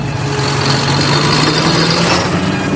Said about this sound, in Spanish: ¿Qué es ese sonido? Es el sonido de un tractor. Estoy en la Plaza de la Independencia, al lado de la Puerta de Alcalá, junto a una columna de tractores que vienen de Guadalajara.